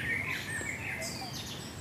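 Several birds whistle and trill at once at a zoo, a steady chorus of high, overlapping calls with no visitor voices present.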